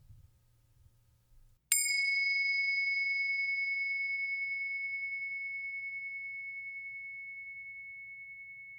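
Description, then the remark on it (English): A single meditation bell is struck once at the start of a meditation practice and rings out with a clear, pure tone, its long shimmering resonance slowly fading over several seconds in quiet. “First, let's settle in together with the sound of the bells.”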